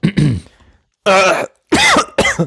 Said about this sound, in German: es sollte eigentlich ein lustiges Husten werden, ein gespieltes Husten, dann, denn war es doch, es, es entwickelte sich dann doch zu einem richtigen.